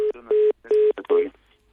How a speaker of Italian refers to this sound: sì, eh, c'era, c'era, un telefono che disturbava in sottofondo.